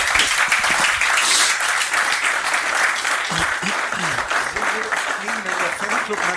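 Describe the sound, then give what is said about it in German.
A studio audience claps steadily and densely for several seconds, a full wash of applause that never lets up, with a few voices faintly audible beneath it toward the end. “Wollen wir unser Publikum mal zeigen? Die verweigern sich gerade noch mit Klatschen und so, wie man das normalerweise machen wollte, weil sie noch gar nicht gemerkt haben.”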